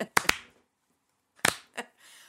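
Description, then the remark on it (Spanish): A handful of sharp hand claps, unevenly spaced with a long pause in the middle, like someone trying to start a slow clap, followed by a brief soft rustle. “No, está tratando de empezar uno de esos aplausos lentos, ¿cachai?”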